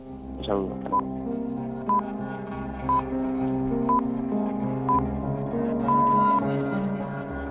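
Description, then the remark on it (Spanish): Radio time signal pips marking half past three: five short, high beeps spaced one second apart, then a longer final tone, sounding clearly over a soft, steady musical bed. “justo con las señales de las tres y media.”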